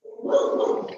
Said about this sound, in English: Yeah, this sorry about the noise, my dog okay.